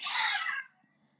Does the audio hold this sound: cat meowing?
yes